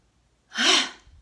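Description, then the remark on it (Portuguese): A single deep, audible inhale while raising the shoulders, lasting about half a second, fairly loud, rising in a breathy rush before fading out. No one speaks. “Então, você vai inspirar subindo os ombros, ó.”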